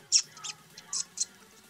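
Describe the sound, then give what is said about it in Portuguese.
A voice imitates a bat with four short, sharp, high-pitched squeaks in an uneven rhythm, moderately loud, with quiet pauses between them. “Como é que é um tutorial de, de imitar, imitar Bora, morcego?”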